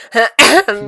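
A loud burst of three quick coughs in a row, each harsh and breathy, the middle one strongest, with no talking.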